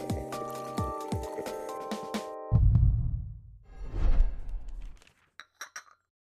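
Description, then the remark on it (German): Glasses clink with bright, ringing tones for a couple of seconds, followed by a low pouring, sloshing rush of purified water and a few faint, short clinks at the end. “Ich habe gereinigtes Wasser hier drin.”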